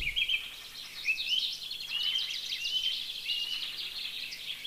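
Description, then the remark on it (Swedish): A song thrush sings outdoors with bright, whistled phrases, each repeated a few times in quick succession, set against a busy chorus of other birds, moderately loud and steady throughout. “Jag tyckte att taltrasten sa fick du fisk, fick nå fisk, fick nå fisk.”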